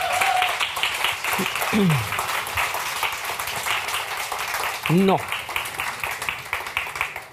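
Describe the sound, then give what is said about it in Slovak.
An audience claps steadily throughout after a talk, in a dense, continuous patter of many hands, while a few brief voice sounds and a short spoken word rise over the applause. “Poprosím potlesk.”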